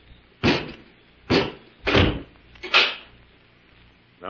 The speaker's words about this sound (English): Robot One, close the door and bolt it.